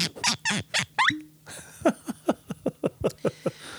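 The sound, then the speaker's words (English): Whisky glugs out of a bottle to refill an empty glass, in a quick, uneven run of about a dozen hollow gulps, clear with no talking. “oh look at that. Your your glass is empty, Jason. Mm. Let's let's fix that, please.”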